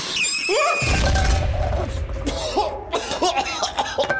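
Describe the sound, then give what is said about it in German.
A sudden loud whooshing bang from a black powder mixture of charcoal and sulfur lit inside a bamboo tube, with a deep rumble that fades within a second, followed by high excited vocal squeals and exclamations. “Ui, ui, ui, oh, oh, das war laut. Oh, oh, ich bin genial. Ich habe das Schwarzpulver erfunden.”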